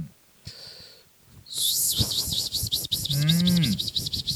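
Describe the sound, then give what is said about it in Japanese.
A voice imitates a large swarm of cicadas: after a quiet start, a loud, dense, high-pitched buzzing sets in with rapid regular pulsing, joined briefly by a low sliding vocal hum. “あの俺が思ってたセミのものまねとちょっと違って、ちょっと再現しにくいけど”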